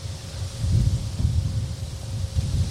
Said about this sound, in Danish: Det er derfor, der ikke er lige noget lyd ud over en masse blæst.